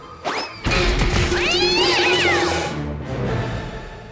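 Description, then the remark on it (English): A cat lets out a loud, drawn-out yowling meow that rises and falls in pitch, following a sudden thump, with a noisy tumbling clatter underneath and no talking. “Sorry about that, Mr. Cat.”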